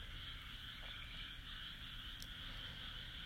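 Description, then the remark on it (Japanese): A dense, continuous chorus of frogs croaking from a rice paddy that was flooded with water that day, heard from indoors, steady, with a low rumble underneath and no voices. “今日は田んぼに水が引かれたからカエルの声を皆さんに聞いていただけるかなと思って室内からなんですがお届けしています”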